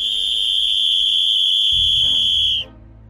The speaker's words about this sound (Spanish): Con manos temblorosas, Mark agarró el silbato y sopló con todas sus fuerzas.